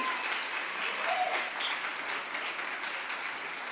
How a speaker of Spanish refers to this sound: Junte sus palmas.